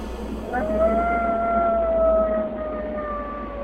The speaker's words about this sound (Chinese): 陌生婆婆突然一声狼嚎，假装成婆婆的大野狼再也忍不住了，拿掉口罩，露出长长的狼鼻子和尖锐的牙齿，追向兔子妮妮和灰猪见。